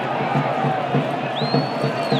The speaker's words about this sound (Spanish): Sí, y la gente como aplaude ¿eh? las carreras del el joven puertorriqueño Jeremy de León.